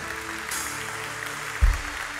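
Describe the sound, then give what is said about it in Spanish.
A church audience applauds the Lord together, a dense, steady wash of many hands clapping that fills the whole moment, with a brief low thump partway through. “Da un aplauso al Señor.”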